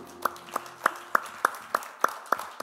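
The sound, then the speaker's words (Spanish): Applause for God after a prayer, in a steady rhythm: about nine sharp, evenly spaced claps, each a crisp crack with a bright ring, sounding like people clapping in unison. No one speaks. “¿Os pueden darle un aplauso a aquel que”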